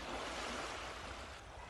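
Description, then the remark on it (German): Ocean waves wash steadily onto the shore in a continuous, soft hiss of surf, fairly quiet and uninterrupted, with no voices present. “Wenn sich die Welle wieder zurückzieht, lässt du wieder alles los und atmest vollständig aus.”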